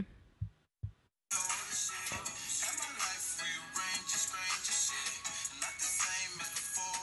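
A few soft low thumps, then a recorded song bursts in loud and full, with dense layered instruments and vocal-like melody playing steadily to the end.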